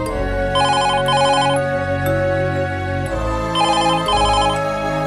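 A telephone rings after the redial button is pressed, in two bursts, each a quick double trill of bright electronic tones, separated by a short pause, over a steady low musical drone with no one speaking.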